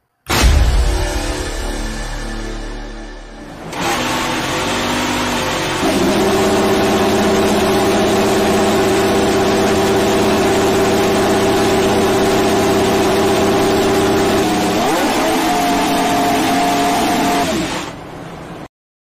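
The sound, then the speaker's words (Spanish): A Ferrari Formula 1 car engine fires up with a loud burst, then holds a steady, high-pitched idle with strong harmonic whine, briefly shifting pitch before cutting off. No talking. “Ferrari hoy, eh, perdón, el día de ayer, encendió su motor y aquí les voy a presentar el video que soltaron en sus redes sociales para que escuchen ese motor.”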